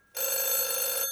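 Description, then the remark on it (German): A telephone rings once in a steady, bright electronic tone lasting about a second, loud, with no voices over it. “Oh, ich glaube, das ist mein Telefon.”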